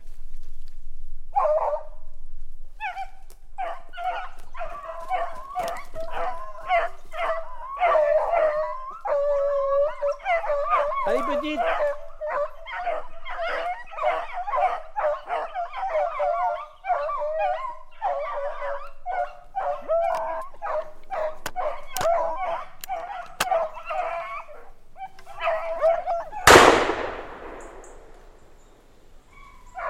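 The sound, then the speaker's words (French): A hunting dog named Betty bays nonstop for about twenty-five seconds, a rapid run of high, ringing barks blending into drawn-out howls, loud and steady before a sudden noisy burst cuts it off. “On écoute Betty On l'écoute”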